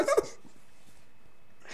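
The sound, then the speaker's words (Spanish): A dog gives a quick pair of sharp, high barks right at the start, then the scene falls to a quiet hum with a faint rustle near the end. “Yo dije, le están dando de, de beber a un perro, de cómo se oía.”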